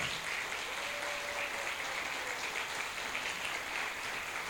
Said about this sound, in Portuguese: Uh! Aplauda o Senhor.